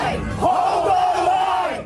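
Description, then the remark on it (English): A crowd of anti-vaccine-mandate protesters in New York, blocking a garbage truck from leaving a Department of Sanitation depot at night, shouts together in a loud, sustained roar, one prominent voice holding a long raised yell over the dense mass of voices before it trails off. “Anti mandate protesters blocked a garbage truck from leaving a Department of Sanitation depot last night.”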